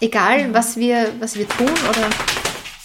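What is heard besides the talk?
dog shaking itself off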